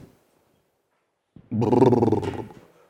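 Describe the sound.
A single deep, loud lion roar bursts out after a short silence, rumbling and growling for about a second before fading, with no voices alongside it.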